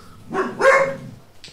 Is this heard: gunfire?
no